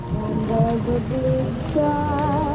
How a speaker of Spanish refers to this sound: Viene con ese sonido de agua este, ¿eh? también.